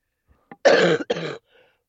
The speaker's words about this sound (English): I forgot to mute. Did I just cough? You just coughed.